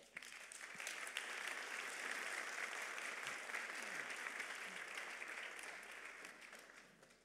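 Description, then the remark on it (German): A crowd claps steadily in a dense, even wash of applause for a person called to the front for an interview. The applause stays strong for several seconds, then gradually tapers off toward the end. “Gebt ihm doch mal einen Applaus.”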